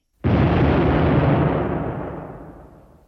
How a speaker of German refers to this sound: Es gibt einen Donnerschlag. Der Kompost fliegt in alle Richtungen.